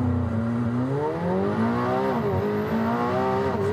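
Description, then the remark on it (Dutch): A McLaren sports car (called the 27S) launches with launch control at full throttle on a closed circuit, reaching over 100. Its loud engine roar climbs steadily in pitch, briefly dips at a gear change, then rises again. No one speaks. “Maar misschien moet ik gewoon nog één keer launch control doen.”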